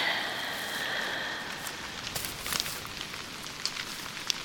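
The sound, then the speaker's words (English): Raindrops patter steadily on a tent, a soft continuous hiss punctuated by scattered, slightly louder individual drops. Quiet, with no voices. “Lie down and hear the raindrops on your tent.”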